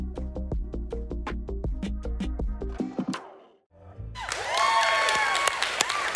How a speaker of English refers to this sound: I, I got just about as much applause as the coffee announcement got, which is unreal.